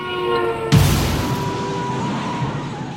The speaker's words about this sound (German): Bums, da hat's auch schon geknallt.